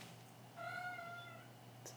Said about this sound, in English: my cat, and if you heard, I mean, I don't know if you can hear her, but she said it was fine. The joke was fine.